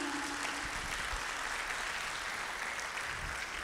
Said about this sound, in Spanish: Démosle un fuerte aplauso a los jóvenes también aquí.